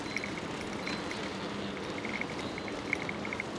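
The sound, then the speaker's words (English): Ocean waves wash close by at about high tide on the long sandy beach of Gott Bay, in a steady, roaring hiss of surf with no distinct breaks between them. Faint high chirps flicker above the noise. “Listening like mad, any corncrake slightly difficult when you've got the white noise of the waves.”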